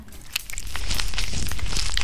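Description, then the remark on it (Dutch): A continuous rustle and crinkle of a lucky-dip bag as a hand digs around inside it, with scattered sharper crackles over about two seconds and no talking. “Zal ik eh, grabbelen?”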